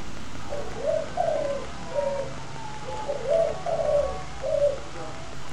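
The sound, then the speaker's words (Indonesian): Birds call on a bright, sunny morning in a steady repeating pattern, soft cooing phrases around a mid pitch arriving every second or so over faint background hiss, with no voices present. “Suasana pagi itu tampak begitu cerah Mentari yang memancarkan sinar kehangatan dan burung-burung yang berkicauan memberi energi bagi setiap orang yang memulai hari dengan semangat baru.”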